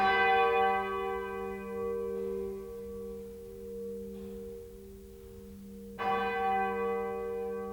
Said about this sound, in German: Bis ich gelesen habe, dass was wir im Prinzip hören, wenn wir einen Grundton von einer Glocke hören, das gibt es eigentlich nicht.